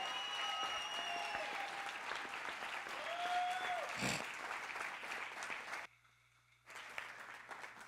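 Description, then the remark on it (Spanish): An audience at a church sermon breaks into sustained, dense applause for the Lord, steady and loud for several seconds, with a brief drop-off near the end before clapping resumes. Some shouts and tonal voices ride over the clapping. “Vamos, si lo que aplauda al Señor.”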